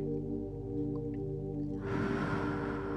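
During a guided deep-breathing exercise, a deep, airy inhalation through the nose starts about two-thirds of the way in, a soft rushing hiss rising over a steady low tonal drone, with no talking.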